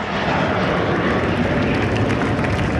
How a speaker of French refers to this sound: Lancés à plus de 600 km/h, les 8 Alpha Jet apparaissent dans le ciel du golfe de Saint-Tropez